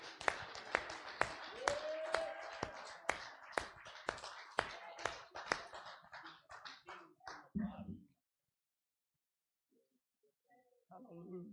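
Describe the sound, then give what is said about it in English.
An audience claps their hands in a steady, sharp rhythm for about eight seconds during a prayer, with voices murmuring underneath; the clapping then stops, leaving near silence before a voice returns. “Clap our hands and claim it in Jesus' name.”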